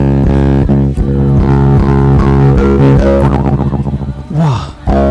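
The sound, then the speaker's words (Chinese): A 3D-printed string instrument, bowed lightly, plays a loud, sustained, reedy melody of short connected notes, ending with a sliding pitch bend before fading out; no one speaks. “我只要轻轻拉，它就会有声音啊。”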